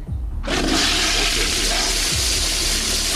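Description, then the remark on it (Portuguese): A toilet flushes: a sudden loud rush of water starts after a brief quiet moment and keeps roaring steadily with a bright hiss, no voices present. “Preto ou é descarga?”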